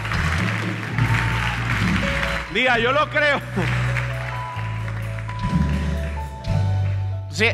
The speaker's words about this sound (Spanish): Ahora sí, denle un aplauso al que lo crea.